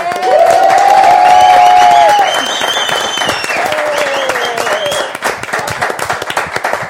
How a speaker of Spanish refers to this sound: pues yo las aplaudo a las dos.